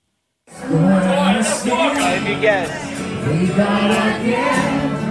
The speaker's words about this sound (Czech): Spívala si mariupolská mládež v hudebním baru v jakési temné předtuše.